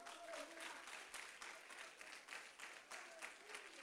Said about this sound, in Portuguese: Aleluia! Aplauda ao Senhor, querido.